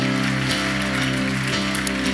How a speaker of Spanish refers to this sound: Dale un fuerte aplauso al Señor.